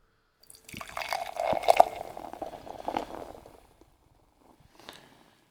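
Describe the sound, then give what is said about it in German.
Non-alcoholic beer is poured briskly and fast into a large red wine glass, foaming up with a firm head: a steady gurgling, splashing rush lasting about three seconds before it tapers off, followed by a faint brief clink or fizz. No one speaks. “Ich habe das auch beherzt eingeschenkt, damit da wirklich mhm. mit Speed das rauskommt.”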